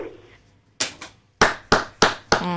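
One person claps their hands about five times: a single sharp clap, a short pause, then four loud, evenly spaced claps, following a brief faint murmur.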